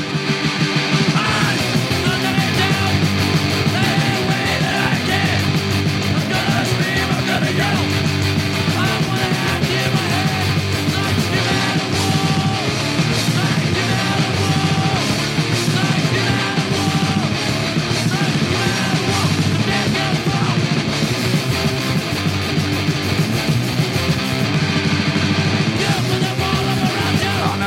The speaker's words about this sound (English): How about this one? Remember this song? A little bit of screaming at a wall, everybody. Why not?